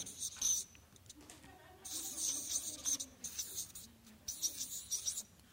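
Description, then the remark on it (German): A marker pen scratches and squeaks across a writing surface in several short bursts of strokes as the words "bürgerliche Kleinfamilie" are written, moderately loud, with faint murmur in the background. “Kann man es lesen? Ich weiß nicht, ob das Stift dick genug ist.”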